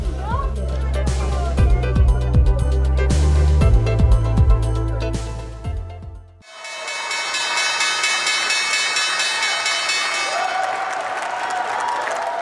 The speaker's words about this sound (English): that is the opening bell, the first time the opening bell has rung on Wall Street. Uh, in 2023 this year.